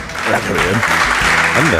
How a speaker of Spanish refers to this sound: Aplauso espontáneo.